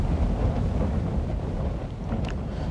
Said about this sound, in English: It's a wild night here. Uh, hopefully, you can hear me. Um, yeah, the wind is uh, wind is pounding Camp Two tonight.